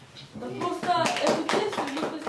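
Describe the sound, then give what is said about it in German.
A small group claps for a couple of seconds, a loose patter of hand claps, mixed with voices talking and calling out over it. “Mädels, ich höre keinen Applaus.”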